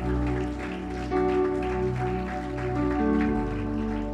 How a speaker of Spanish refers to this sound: Dele un fuerte aplauso a la palabra de Dios.